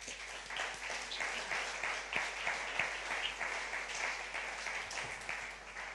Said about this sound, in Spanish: Amén. denle un aplauso, Señor, por eso. Venga.